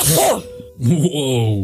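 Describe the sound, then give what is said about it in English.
A sudden, sharp sneeze bursts out, followed by a short laugh and a surprised exclamation from the speaker. “Bless you.”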